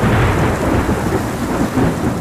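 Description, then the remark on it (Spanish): Heavy rain pours steadily while a deep, rolling rumble of thunder fills the low end, loud and continuous throughout with no voices. “¿Preparado para la lluvia?”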